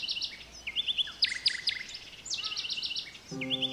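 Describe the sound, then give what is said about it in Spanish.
A bird in an audio game chirps repeatedly in quick, bright bursts of high tweets, fairly clear and steady, joined near the end by a short harmonic tone with no talking. “Muy bien, ahora trata de atrapar al pájaro.”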